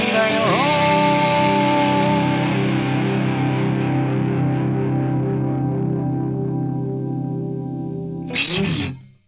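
The closing moment of a soul song from the soundtrack of Quentin Tarantino's film Reservoir Dogs: a loud, full chord rings out with a buzzy, effected tone, holding steady for several seconds before a short noisy burst cuts it off.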